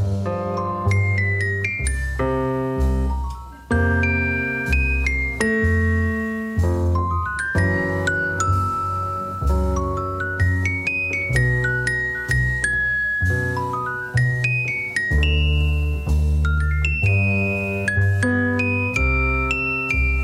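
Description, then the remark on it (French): A 1957 jazz solo alternating between celesta and piano, the celesta set perpendicular to the piano, sometimes both played at once; bell-like tinkling celesta lines answered by fuller piano chords and bass notes, played steadily and fairly loud with no voices. “il décida de disposer l'appareil à la perpendiculaire du piano, si bien qu'on l'entend passer de l'un à l'autre”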